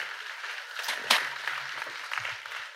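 An audience claps steadily for about three seconds: a dense, crackling wash of many hands at moderate volume, with a sharper single clap near the middle and faint voices underneath.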